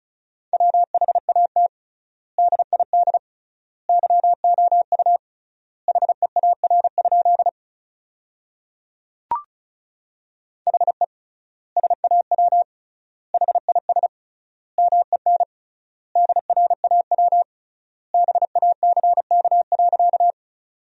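Fast Morse code at 35 words per minute with triple word spacing, sending sentences built from the 300 most common words: a steady mid-pitched tone keyed in rapid dots and dashes, grouped into words with clear pauses between, plus a single soft click midway. No voices.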